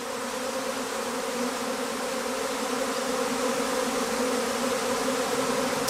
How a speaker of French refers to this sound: Voilà des vrombissements d'abeilles, mais pas n'importe lesquelles, les abeilles noires, celles dont s'occupe Sophie Berton, apicultrice dans le massif des Alpilles.